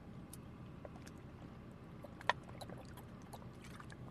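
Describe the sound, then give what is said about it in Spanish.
Someone takes a quick sip of water: faint slurping and wet mouth sounds with one sharp click midway, over a steady low background rumble and no talking. “Un ah, Fachito de agua.”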